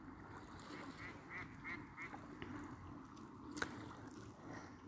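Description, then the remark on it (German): Ducks quack in short bursts on a lake on a peaceful evening as the sun sets, over a steady wash of water and gentle lapping of small waves on the shore, with one sharper call standing out briefly. “Dem Entenvolk, den Seglern, den Stand-Up-Paddlern, den Spaziergängern”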